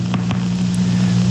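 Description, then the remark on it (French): Two quick, sharp clicks early on, the discharges of a single neuron isolated by a tungsten electrode, ride over a loud, steady low electrical hum that fills the whole recording. “Les clics qu'on entend, ce sont les décharges d'un neurone qui a été isolé par une électrode au tungstène.”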